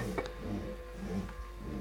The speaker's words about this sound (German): Er entriegelt die Trommel drückt mit dem Daumen darauf, lässt sie mehrmals leer durchlaufen.